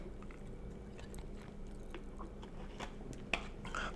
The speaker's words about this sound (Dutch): Oké, ik neem even een slokje water